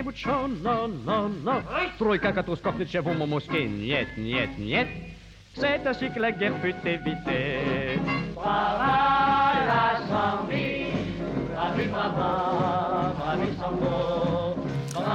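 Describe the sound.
An old samba song recording: sung voices carry a lively melody over dense instrumental backing, staying loud and steady apart from a brief drop midway.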